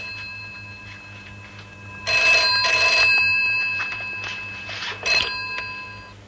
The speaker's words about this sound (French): Eh bien, ne reste donc pas planté comme ça. Réponds au téléphone. Tu vois bien que je suis occupée, non